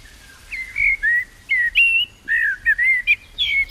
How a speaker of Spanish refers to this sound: Este tercero, este nuevo pájaro, este canta en la ventana de mi casa, cantaba hace unos años, y ya tiene su primera estrofa.